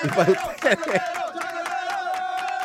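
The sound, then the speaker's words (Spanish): A show's audience cheers and shouts loudly for the first second, then steady rhythmic clapping carries on under a sustained, droning chorus of voices until the end. “Así que un, cariñazo especial para ustedes, un abrazo chancletero y un aplauso que el show, el show es de ustedes, por ustedes”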